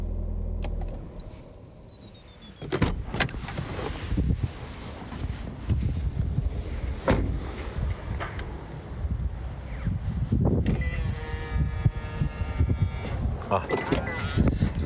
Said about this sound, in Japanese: えー福島県白河のダルマランド、えー、やってきました多分そこの駐車場に車を止めたっていう状態だと思います、えー、今から行ってみますエンジン止めて行ってみよう